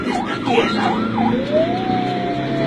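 An ambulance siren wails in quick rising-and-falling sweeps, then settles into a long, steady high tone, fairly loud and close over a low rumbling background.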